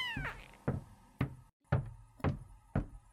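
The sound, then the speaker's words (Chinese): A cat gives one short, falling meow, followed by five sharp knocking thuds spaced about half a second apart. No one speaks. “一直走到四楼，才终于看见他窜出来。”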